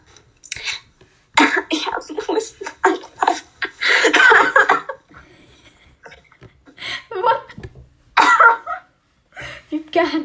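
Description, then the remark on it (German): A coughing fit: clusters of harsh, rapid coughs, heaviest in the first half, then a few scattered coughs with short pauses between them. “kurzen Hustenanfall.”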